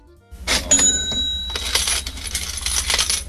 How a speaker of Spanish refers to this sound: Y podríamos, no sé, ya que como esto ha sido un especial, podríamos poner algún sonido así un poco pues, relacionado, ¿no? Alguna monedita, algún, no sé, algo así.